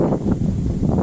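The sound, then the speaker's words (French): Wind buffets the microphone in a steady, heavy low rumble, with gusty swells rising and falling throughout and no voices, recorded on a camera's selfie camera at 1080p 30 while walking through a landscape. “Désolé pour le vent, j'espère que ça va le faire, on hein, quand je recommencerai.”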